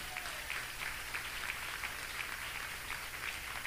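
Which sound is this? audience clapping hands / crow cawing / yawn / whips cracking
audience clapping hands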